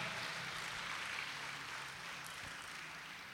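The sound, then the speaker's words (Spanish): A church audience applauds the Lord during a sermon in a steady, sustained wash of clapping that holds for a few seconds, tapering slightly toward the end, with no one speaking. “Dele el aplauso al Señor, por favor, si se lo va a dar.”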